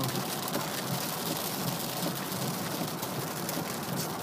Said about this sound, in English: Uh, it is a rainy Tuesday morning, um, the Tuesday before you are listening to this. Huh. I apologize for rain. It is infrequent yet heavy.